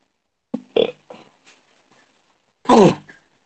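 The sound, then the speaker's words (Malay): A person clears their throat and coughs: a quick cluster of short, rough bursts, a few faint ones, then a pause before one louder, harsh hack at the end. “Batuk pun nak habis kamu selesa.”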